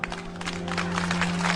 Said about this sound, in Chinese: 海大夫上台，掌声自然来。